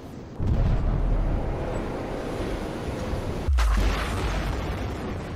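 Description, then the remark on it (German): Two deep, muffled booms, one near the start and another about three seconds later, each a heavy low-pitched air blast from a seismic airgun used by oil companies to send sound waves into the seabed, over a steady rumbling underwater background. “Airguns, also Luftkanonen, lassen explosionsartig Luft entweichen.”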